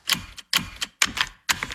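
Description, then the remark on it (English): Four crisp seatbelt buckle clicks snap shut one after another in a car as children are buckled in, evenly spaced about half a second apart, each a quick double-edged metallic latch sound, clear with no voices. “So only move when you hear the click that says they're buckled in.”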